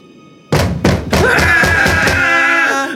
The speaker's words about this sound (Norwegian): Senere på kvelden, mens guttene satt og koste seg med maten og en god rødvin, banket det plutselig på døren igjen.